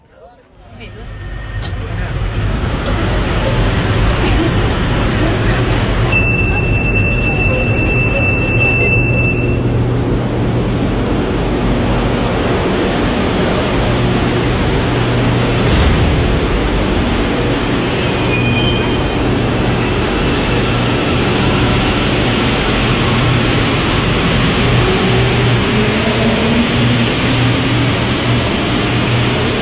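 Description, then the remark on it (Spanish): A Santiago metro train running: a steady, loud low rumble and rattle of wheels on track for the whole stretch, with a brief high whine partway through and indistinct voices blended into the noise. “Eh, y- indistin- o sea, in- inconfundiblemente el metro, eh, que también es para, para quienes vivimos en Santiago es, es- es parte mm, natural, cotidiana de nuestra banda sonora, de la Claro.”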